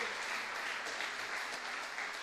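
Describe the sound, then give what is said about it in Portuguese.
A crowd applauds steadily, a dense wash of many hands clapping at once, fairly loud and sustained without pause, with no voices standing out above it. “Aplauda ele se você crê, eu voltarei.”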